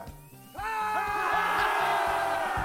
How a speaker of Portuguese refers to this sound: o multipsicólogo, cirurgião dentista especializado em sisos, irá fazer um paciente gritar um Lá maior arrancando seu dente canino na sessão de terapia.